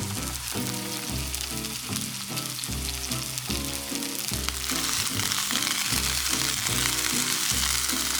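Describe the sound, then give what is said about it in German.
Food sizzles steadily as it fries in a pan, a loud, continuous crackling hiss with no talking, and a rhythmic low tonal pattern running underneath. “Jetzt nehme ich den Relken, gebe ihn ein. Und das fängt jetzt schon langsam zum Brutzeln an.”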